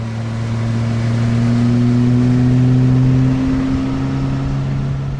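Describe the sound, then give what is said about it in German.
A speedboat engine roars with a steady, loud droning hum over rushing water and wind noise, its pitch shifting slightly as it runs, out on the dark Lake Constance at three in the morning. No one speaks. “Darum fahre ich mit ihm auf einem Speedboot nachts um drei den Führenden auf dem dunklen Bodensee entgegen.”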